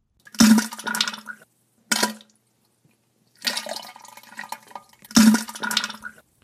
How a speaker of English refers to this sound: I hear that some people get the tingles listening to someone with a bad case of diarrhea.